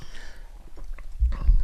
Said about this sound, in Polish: O, mogę się akurat teraz, y, możemy się napić y, łyka wody przy okazji, Na zdrowie. nawodnimy się.